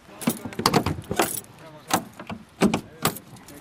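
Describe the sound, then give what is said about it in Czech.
A vintage car being shut away for the night: a series of metallic clanks, rattles and jingling, like keys and doors being handled, with short bursts of activity separated by brief pauses. “tak a teď tvého miláčka zavřeme. No, no a necháme ho spát až do rána.”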